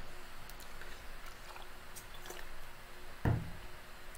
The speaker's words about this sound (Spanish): ah, un traguito de agua